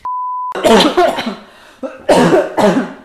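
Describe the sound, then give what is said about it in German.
A short electronic beep, then two people coughing, a loud, rough run of hacking coughs, a brief pause, and another burst of several harsh coughs. “sehr authentisches Husten von beiden Protagonisten.”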